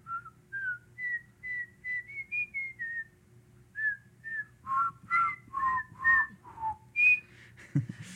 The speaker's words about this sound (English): I was trying to like whistle the tune and then have everyone pick it up.